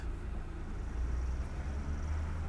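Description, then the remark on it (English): A car passing outside, heard as a steady low engine rumble with a broad road hiss that holds at an even, moderate level throughout, with no voices present. “Wait to... for this car to pass”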